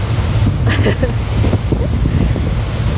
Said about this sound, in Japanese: なんでフェリーに乗って風ガザガザの中ラジオを撮ってるいうとうんなんとなくですうん天気がいいのか悪いのかよくわからない